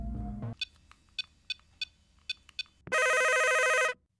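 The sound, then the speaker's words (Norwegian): The studio telephone of the radio station Radio Revolt rings: a short run of evenly spaced faint electronic chirps, then one loud, sustained electronic ring lasting about a second, clear, with no talking. “Radio Revolt 6-telefon, vær så god.”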